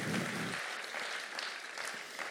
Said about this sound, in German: Echlen, Echlen, gibt ihnen noch mal einen großen Applaus. Schön, dass ihr da seid.